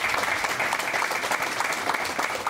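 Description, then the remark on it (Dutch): An audience claps for the men seated at a panel table, a dense wash of many hands forming a continuous, even roar of applause with no pauses or voices standing out. “Nee, inderdaad, we gaan applaus geven voor de heren hier aan tafel.”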